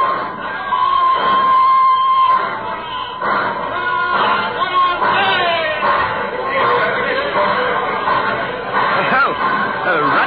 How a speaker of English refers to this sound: happy crowd out there at the station.